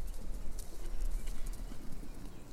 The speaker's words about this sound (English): Hear what? Horses? No, nothing like that. I need to get more sleep, I'm hearing things.